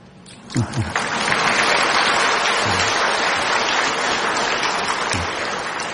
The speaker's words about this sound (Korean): 박수 쳐달라는 건 아니었어요.